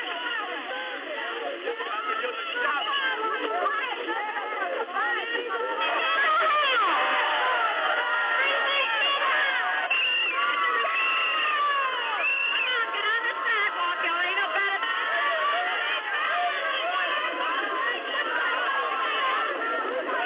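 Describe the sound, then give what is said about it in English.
A loud, dense crowd of no more than 70 or 80 people shouts and jeers continuously outside a school in the Deep South where Ruby Bridges is the only Black student, many overlapping voices yelling at once, with no pauses and a steady, raucous roar throughout. “never very large, no more than 70 or 80 people, but it is always very loud.”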